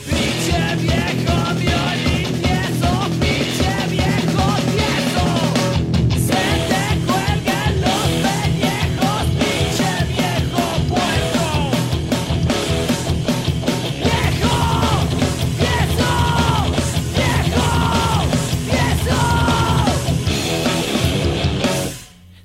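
A loud, fast punk rock song by a Mexican punk band, with distorted guitars, pounding drums and raw shouted vocals, playing at full intensity throughout before cutting off abruptly at the end.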